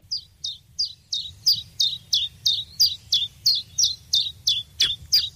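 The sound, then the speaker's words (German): Eurasian siskin song: a steady run of about a dozen short, high, down-slurred chirps, evenly spaced and clear, over a faint low background rumble with no talking. “Z ist richtig. Z, Z, Z. Micha, komm. Zeisig.”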